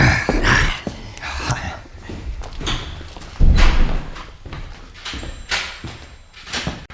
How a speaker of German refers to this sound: Dann werde ich jetzt die erste Tür aufschließen.